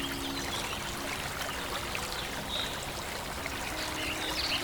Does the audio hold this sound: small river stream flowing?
yes